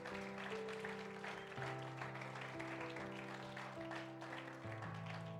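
A crowd at a church applauds God steadily and loudly throughout, a dense wash of clapping layered over sustained keyboard chords that shift pitch a couple of times.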